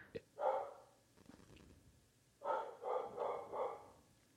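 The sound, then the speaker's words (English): A dog barks once, then after a pause lets out a quick run of about four more barks, fairly faint, with no one talking. “between the dog and the husband on the lawnmower”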